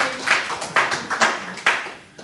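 Brief, scattered applause: about five sharp, bright claps at uneven intervals, each fading quickly, with no voices over them.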